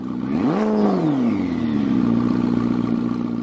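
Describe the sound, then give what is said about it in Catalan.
A car engine roars up in pitch as the car shifts into first gear and pulls away hard with a jolt, then drops back and holds a steady, loud drone, with no voices. “Entra a la primera marxa i arrenca a córrer d'una estrabada.”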